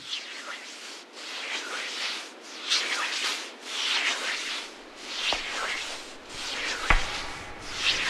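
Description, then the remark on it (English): Someone's joints cracking, pitched down 15 semitones with the top end lowered: a steady series of rough, hissy creaking swells about once a second, with a couple of sharp, low cracks near the end. No voices. “So that's someone j- cracking their joints.”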